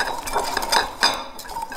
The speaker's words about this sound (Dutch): En ik pak een beetje melk en een garde. En ik doe de melk erbij. En ik begin het alvast tot een mooi beslagje te kloppen.